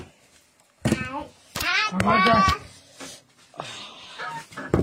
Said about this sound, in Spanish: Ya váyanse para allá. Ya, ya, ya. Ya, ya no quiero perros. Uno les hace un cariñito y ya se alborotan toditos.